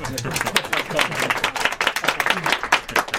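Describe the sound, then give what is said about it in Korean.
A room full of people in the Crystal conference room of the Seojin Hotel claps steadily for a few seconds, congratulating officials of 11 companies chosen in the hotel's first amenity tender round; dense overlapping hand claps form sustained applause, with a faint murmur of voices underneath. “먼저 서진호텔 어뮤니티 1차 공모 대상자가 되신 11개 회사 관계자 여러분 모두에게 축하의 박수를 보냅니다.”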